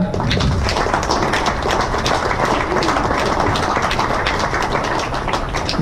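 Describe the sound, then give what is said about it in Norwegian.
A small round of applause: steady, dense clapping from a handful of people, crisp and fairly loud, holding evenly for about six seconds with no voices over it. “Det er, det, det er en liten applaus, er ikke”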